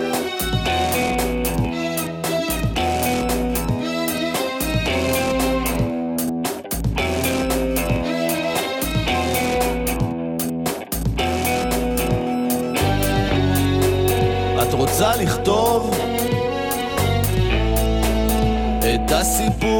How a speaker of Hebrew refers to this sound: תקשיבו לזה, חכו לפזמון ותראו שגם אתם רוקדים.